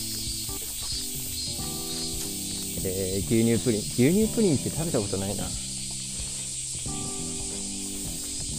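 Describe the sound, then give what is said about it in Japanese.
Cicadas buzz outdoors in a steady, high, hissing drone that never lets up, while a person talks casually over it. “いやもうセミが本格的に鳴いてますねあの雨が多かった時は若干おとなしかったですけど”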